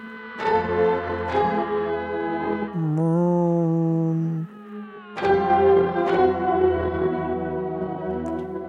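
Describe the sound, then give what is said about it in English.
A bright, harmonically rich synth tone sags downward in pitch and climbs back up, set between loud, dense chordal bursts with bell-like sharp attacks. No voices are heard. “just uh, a, some kind of synth bending downward and then back up.”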